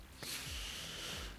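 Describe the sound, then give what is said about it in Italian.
A dog snorts and sniffs in a single breathy burst lasting about a second, with a few soft low thumps beneath it and no talking. “È un cane, sì”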